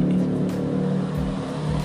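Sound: motorcycle passing by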